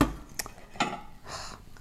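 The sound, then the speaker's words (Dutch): Dishes and cutlery clink and clatter during washing up, a few sharp knocks spaced over a couple of seconds with a soft rinsing hiss in between. “Ik heb nog wat afwas.”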